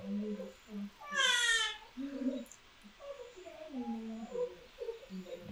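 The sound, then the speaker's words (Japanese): A young child's high-pitched vocalization rises briefly and clearly above ongoing adult conversation, a short wavering cry-like sound lasting about a second before the talking continues. “子供の声、うん、あ、子供の声入ってます、入ってます。”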